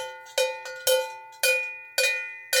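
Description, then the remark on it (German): A cowbell (Schelle), a robust bell worn by cows on alpine pastures, clanks about six times in an irregular, swinging rhythm, each bright metallic strike ringing on with a sustained tone. It sounds clear, with no voices. “Das ist eine Schelle.”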